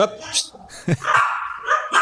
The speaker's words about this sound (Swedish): Hundskall. Ja, det är två, det är två rottweiler jag har här. Tyst med er!